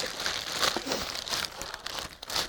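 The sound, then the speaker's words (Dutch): A plastic bag, found in a small box with three cassette tapes, crinkles and rustles steadily while being handled, a continuous crisp, papery crackle with small bursts and no talking. “Drie bandjes en een plastic zak.”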